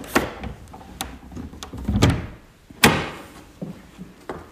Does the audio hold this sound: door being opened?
yes